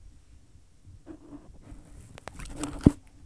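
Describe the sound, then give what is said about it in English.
Quiet scratchy nibbling and soft crunchy chewing from a small pet trying to eat the microphone, right against it, with irregular small clicks and one sharp loud bump near the end, no talking. “She tried to eat the mic.”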